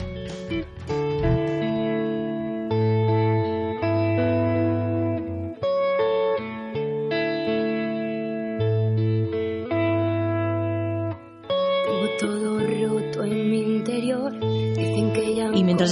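A song plays steadily throughout, with sustained chords over a deep bass line, shifting harmonies, and a brighter, busier texture in the final few seconds, fairly loud and clear.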